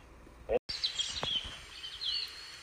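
Birds tweeting, a scatter of thin, high chirps and short trills over a quiet outdoor hum, with a brief sharp knock early on.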